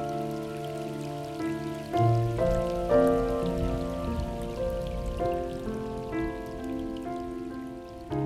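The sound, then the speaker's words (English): A steady hiss of spring rain in the Grain Rain (Guyu) season, with scattered patter, runs beneath gentle music holding sustained chords that shift every second or two. No one speaks. “谷雨时节，听故乡的雨”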